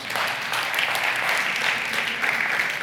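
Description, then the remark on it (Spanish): A crowd claps steadily throughout, a dense, even wash of applause with no pauses or voices standing out, everyone applauding for God. “Yo creo que Dios se merece un aplauso de todos.”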